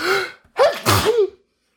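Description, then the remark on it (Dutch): A single loud sneeze, preceded by a sharp inhaled build-up and a brief gasp, then fading quickly into silence. “Sorry. Zo, gezondheid.”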